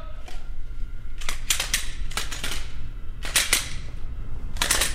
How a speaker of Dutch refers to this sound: de wapens klaarmaken voor dienst.